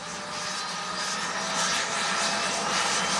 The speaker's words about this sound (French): Vous enchaînez les heures de vol pendant près de deux ans avant de pouvoir monter à bord d'un vampire. Un avion subsonique de l'armée de l'air.